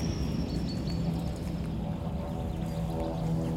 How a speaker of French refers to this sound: Ah, les avions, ils gênent pas. hein. Ouais, non. Il y en a un autre là, on peut entendre le- celui-là.